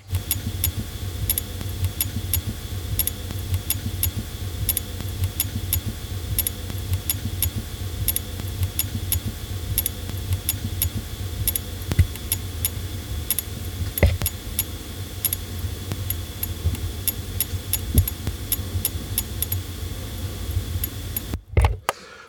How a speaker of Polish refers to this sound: Pozwolę sobie y, rozładować urządzenie. Jeszcze raz je włączyłem. 5 sekund odczekamy i chciałem, żeby Państwo posłuchali, jakie, jakie urządzenie wydaje dźwięk, jeśli ładuje baterię. Bo troszkę on się różni. Proszę posłuchać.